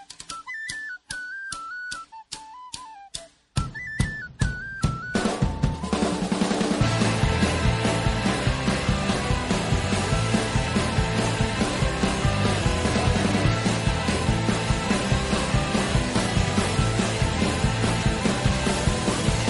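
A song plays: a high, whistle-like melody opens over steady clicking beats, then a loud full band with driving drums kicks in and keeps going at a fast, even pace.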